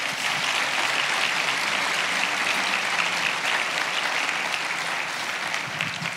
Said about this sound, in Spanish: ¿Cuántos le pueden dar un fuerte aplauso al Señor por eso? Bien fuerte.